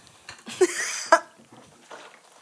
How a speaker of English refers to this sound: I have like this disgusting cough. No, I don't have COVID. She has COVID. No, uh, I just be like smoking.